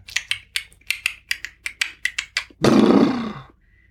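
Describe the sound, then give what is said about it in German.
A person imitates a horse: about a dozen quick, evenly spaced clopping clicks like hoofbeats, then a loud, breathy, rasping whinny-snort that fades away. No talking. “Ein Pferd, ganz genau, ein Pferd. Heute mache ich einen Pferdeabend. Ich mach's nochmal.”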